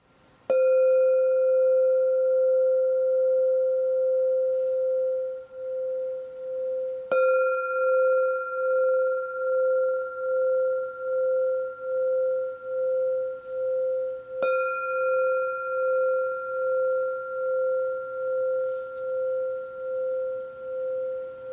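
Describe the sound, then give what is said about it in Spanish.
Three Himalayan singing bowl strikes at steady intervals, each ringing out in long, shimmering tones that pulse and wobble gently as they sustain, with no voices. “Estos son los cuencos del Himalaya. Instrumentos que traen felicidad y armonía a tu vida.”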